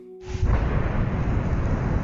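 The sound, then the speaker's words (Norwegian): A bomb explosion in central Oslo at 3:25 in the afternoon, heard across the whole city: a sudden loud blast bursts in after a brief silence, then a heavy, sustained low rumble roars on without letting up, with no voices. “Ei bombe har altså gått av i Oslo sentrum.”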